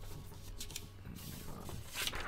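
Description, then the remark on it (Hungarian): Paper is handled, with a few soft, crinkly rustling bursts and light scraping over a quiet background. No one speaks. “Remélem itt a papírnál jól hallatszik minden.”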